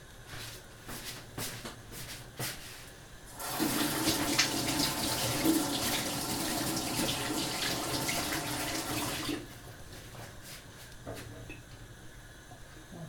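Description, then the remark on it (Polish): Water runs steadily from a tap for about six seconds as a peeled parsley root is rinsed under it, with light handling clatter before and after; no one speaks. “strząsnę z wody i również do garnka.”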